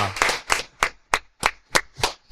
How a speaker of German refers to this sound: Ich warte jetzt aber kurz äh, auf den Applaus. Ja.